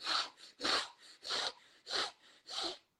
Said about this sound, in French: Au contraire, si tu vas faire plutôt des grandes inspirations rapides